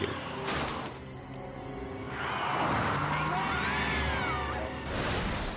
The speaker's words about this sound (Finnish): Kolari.